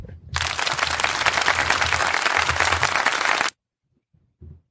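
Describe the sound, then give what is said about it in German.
A burst of crowd applause, played in as a sound effect, runs for about three seconds, dense and loud, then cuts off abruptly into silence, followed by a brief low thump. “Kannst du Applaus einspielen?”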